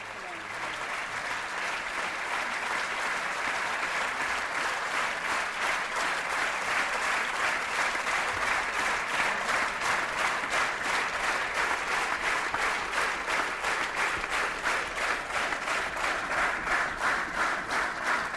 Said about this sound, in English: curtain is down to rapturous applause and that slow hand clap is the Israeli way of saying we approve. As the applause for the play dies down,